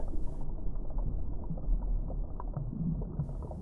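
A long, distant underwater boom, picked up by a hydrophone attached to a weight resting on the seabed, rolls on as a deep, muffled, reverberant echoing rumble, holding steady at a fairly loud level for several seconds with no voices present.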